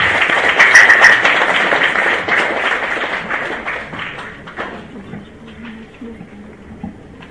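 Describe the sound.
A crowd breaks into dense, sustained applause welcoming a Tsinghua University history professor and a Peking University history professor, loud at first and gradually thinning out over several seconds, leaving a few scattered claps and faint murmuring voices at the end.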